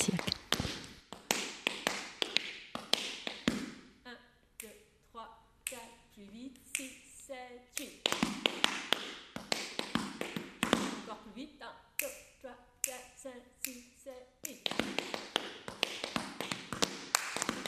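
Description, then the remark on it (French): Rapid, crisp tap-dance shoe strikes on a hard floor, in quick rhythmic bursts and flurries, fairly loud, with a voice briefly talking between the tapping passages. “les claquettistes et les tap dancers voilà qui ont bien conscience que les claquettes ça fait partie euh, de l'univers de, la musique et plus particulièrement du jazz en l'occurrence pour, euh, pour Jazzine”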